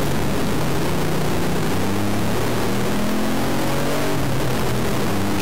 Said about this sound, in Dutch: De twee laatste standen. Waardoor motor extra lekker doorkomt uit de box of zo, maar gewoon lekker echt ouderwets motorgeluid.